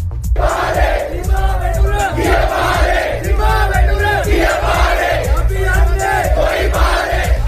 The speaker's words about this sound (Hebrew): ממשלת סרי לנקה כולה התפטרה השבוע לאחר שאלפי אזרחים צעדו בבירה קולומבו במחאה נגד התנהלותה הכלכלית של הממשלה, שהכניסה את סרי לנקה למשבר הכלכלי החמור ביותר שם זה עשרות שנים.